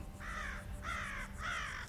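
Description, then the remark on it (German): Three harsh, drawn-out caws from three crows in a desert repeat at a steady pace, each lasting about half a second, clear over a low background rumble. “Seit Stunden begleiten ihn jetzt drei Krähen, mit denen er ab und zu spricht.”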